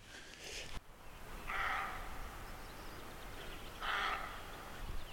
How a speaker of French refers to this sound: Et là, ce que vous avez entendu, c'est un, un chevreuil. J'ai mis un moment à le repérer. Vous entendez ce. C'est vraiment le cri d'un animal blessé en fait.